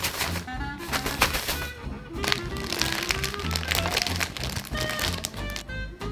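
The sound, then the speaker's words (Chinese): Fifteen grams of salt and fifteen grams of sugar are shaken together inside a zip-lock bag to make a brine for meat, giving a steady, busy run of crinkling plastic and fine gritty rustles with scattered sharp ticks, lasting several seconds with no talking. “把盐和糖倒入夹链袋中，然后稍微混合一下。这个步骤其实没什么必要性，但声音倒是蛮好听的。”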